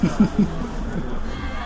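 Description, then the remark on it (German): A large stadium crowd of spectators, disappointed as their team trails, murmurs in a steady, low hubbub of many voices, with a few short bursts near the start before the babble settles into an even, continuous drone. “Man hört das ja auch an den Enttäuschungen bei den Zuschauern.”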